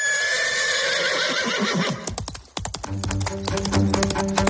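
A loud horse whinny rings out for about two seconds, then gives way to a steady run of sharp hoof clip-clops, with no voices present.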